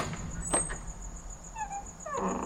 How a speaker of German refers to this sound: Am Tage ihr dauerndes Getrappel, ihr Bellen, und dann ganz plötzlich am Abend die Stille. Eine fürchterliche Ruhe sind sie endlich in ihren Holzhütten. Diese Stille ist ärger als ihr Lärm am Tage.